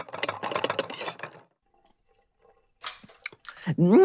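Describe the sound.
Someone eats soup that was cooking on the stove: a short run of wet slurps and spoon clicks after voices and a quiet pause, then a rising, pleased hum of a voice at the end.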